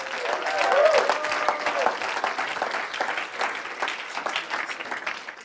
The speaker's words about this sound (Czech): Pojďme zatleskat ještě jednou.